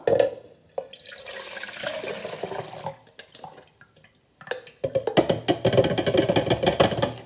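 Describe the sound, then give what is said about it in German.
Liquid splashes and gurgles as it is poured from one container into a larger one, pausing briefly midway before a louder, denser stream resumes. No one speaks. “Deswegen machen, füllen wir das Ganze jetzt auch noch um in einen anderen Behälter, also in einen größeren, dass es auch gut reinpasst.”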